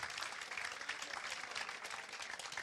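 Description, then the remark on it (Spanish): A church audience applauds together in thanks to the Lord, a dense, steady wash of many hands clapping at once that holds for the whole stretch, moderately loud and without any voices over it. “Vamos a dar un aplauso de agradecimiento al Señor.”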